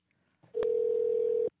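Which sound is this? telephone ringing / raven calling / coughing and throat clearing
telephone ringing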